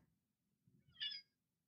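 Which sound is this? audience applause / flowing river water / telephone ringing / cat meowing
cat meowing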